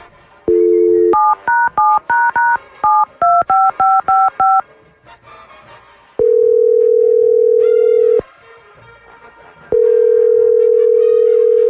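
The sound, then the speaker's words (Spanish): A telephone dial tone gives way to a quick run of keypad beeps as a number is dialed, followed by two long, steady ringing tones of an outgoing call. No one speaks. “Vamos a marcar.”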